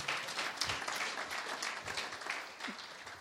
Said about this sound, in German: und wir machen es ja fast jede Woche, dass wir der Lobpreisgruppe einen Applaus geben.